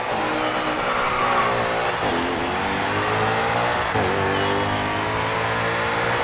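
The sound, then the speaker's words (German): A racing car engine in a racing video game revs continuously and loudly, its pitch climbing in sweeps and dropping sharply twice as gears shift, with no one speaking over it. “Ihr habt gerade eben dieses eine Auto gehört, aber egal.”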